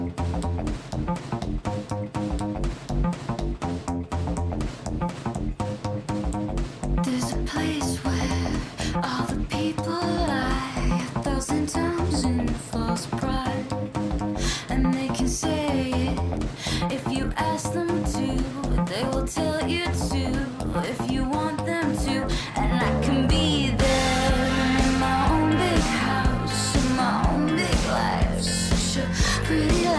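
A full-band song, a new release, plays for the whole stretch with a steady, driving beat and layered instruments, loud, swelling into a denser, brighter section toward the end.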